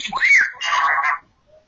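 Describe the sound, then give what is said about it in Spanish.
A small droid screams in fear, calling for help: a shrill, swooping squeal rises and falls, then breaks into a frantic warbling chatter before cutting off, with no talking alongside it. “Exacto, te concentras, escuchas el sonido del droid que está gritando de, de miedo, está demandando, reclamando ayuda”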